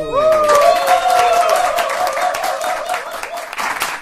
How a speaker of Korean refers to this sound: 싱글을 하셨어요. 박수.